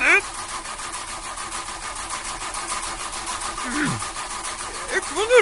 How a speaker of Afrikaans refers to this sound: Laat ek die enjin aan skakel. Hmm. Uh, eh, dit is nodig. Uh, hmm, laat ek weer probeer.